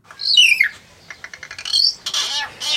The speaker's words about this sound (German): Da ist doch einer, ein sogenannter Mittelbeo. Er gehört zur Gattung der Seevögel, ist etwa 20 bis 30 cm groß, ist schwarz, wobei er einige gelbe Federn am Kopf hat. Der Schnabel ist leuchtend orange.